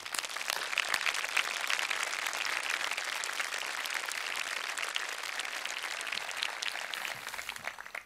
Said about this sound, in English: Dr. Johnson, would you stand up and let us applaud you for your years of faithful service to Cedarville University?